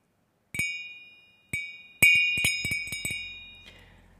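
A Baccarat crystal glass, which contains metal, is struck several times, each tap ringing out with a clear, bright, sustained tone; two spaced taps, then a quicker cluster of clinks, fairly loud, with no talking.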